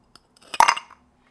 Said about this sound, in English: So if you take one of these big king cubes, they're inch by inch by inch. Okay. And put it into the glass.